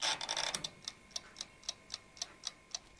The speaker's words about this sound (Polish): I ten tykający zegar, niczym tykająca bomba, niech nawiązuje do tykającej bomby w powieści Paula Tembra Trembleya